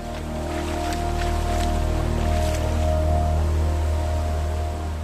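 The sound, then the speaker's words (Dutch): Floodwater rushes steadily along a path to the Heidelaak brook during heavy rain in summer 2021, a loud, continuous churning roar with a deep low rumble and no pauses, with no voices. “De gevolgen daarvan werden zichtbaar in 2021 in de zomer bij de hevige regenval. Dan zag het pad er naar de beek niet zo uit, maar wel zo.”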